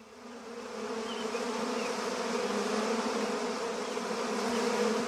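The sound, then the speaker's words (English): A dense swarm of bees buzzes steadily and loudly over sugar, a continuous droning hum with layered overlapping tones and no voices. “Get off my sugar! Bad bees!”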